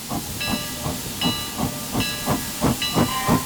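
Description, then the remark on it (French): The steam engine of a train standing in a station chugs in a steady repeating rhythm, rhythmic puffs of hissing steam with a metallic ringing tone recurring every beat, fairly loud with no voices. “On entend juste le mécanisme répétitif de la machine à vapeur.”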